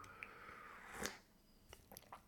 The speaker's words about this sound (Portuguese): Mas pronto, é o que é, vou até dar aqui um golinho do...